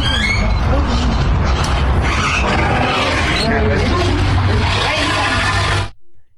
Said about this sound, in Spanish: Ese sonido es un sonido que producen los elefantes y que se le dice que barritan. Es un sonido muy peculiar y que yo sentí que había escuchado en otro lugar